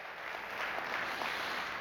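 A church audience at a service claps steadily together in praise to the Lord, a dense, continuous wash of applause from many hands, fairly loud and without any voices.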